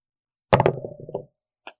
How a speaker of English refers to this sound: So what happens is when when I'm at a disadvantage when I roll, I roll a d20 twice, but I take the lower score of the two.